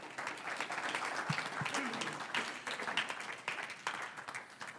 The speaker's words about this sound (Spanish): Un aplauso al Señor.